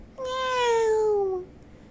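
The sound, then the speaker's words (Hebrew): A single drawn-out cat meow, loud, lasting just over a second with a slightly falling pitch, heard alone with no talking. “מספיק עם זה, אתה חתול כמו כל החתולים, בוא לפה עכשיו ותתרחץ.”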